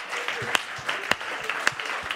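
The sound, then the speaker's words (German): A crowd applauds steadily, giving the Lord a big round of applause during a church worship service, a dense wash of clapping with a few sharper, louder claps standing out at regular intervals, as if someone is clapping strongly. “Lasst uns alle zusammen mal dem Herrn einen riesen Applaus geben, okay?”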